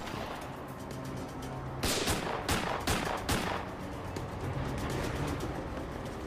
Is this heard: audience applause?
no